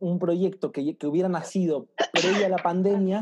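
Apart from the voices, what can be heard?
sneeze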